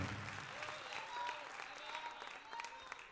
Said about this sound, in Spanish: Les enviamos un caloroso saludo desde este auditorio de la Claro Maryland, los Estados Unidos. Y la iglesia da un fuerte aplauso al Señor, saludando, saludando a toda esta linda gente. Aleluya.